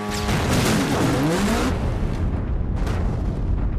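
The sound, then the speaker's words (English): A loud explosion erupts in a roaring blast that fades into a heavy rumble, with a second burst of crackling debris a couple of seconds later: a tractor trailer exploding at the port of Los Angeles in Gymkhana 2 after Block drifted a newer Subaru under it. No one speaks. “That then exploded”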